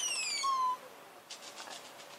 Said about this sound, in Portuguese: É o guache. Menina, que babada isso aí. é um pássaro. Quase um pajé.